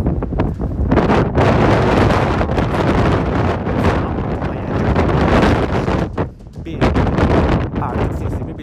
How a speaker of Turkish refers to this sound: duyamayabilirsiniz yani. O kadar rüzgar vardır ki anlatamam bu 25. kat.